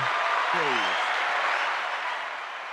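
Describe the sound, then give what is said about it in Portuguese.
A burst of steady, dense clapping fills the whole moment, holding strong before easing slightly at the end, with a brief voice sounding early on beneath the applause. “Palmas sugáveis, vai.”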